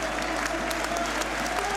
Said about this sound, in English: Carl Parkinson getting a round of applause. The players are getting wound up, the fans are ready.